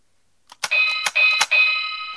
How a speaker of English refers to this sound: You, why don't you ring the damn bell?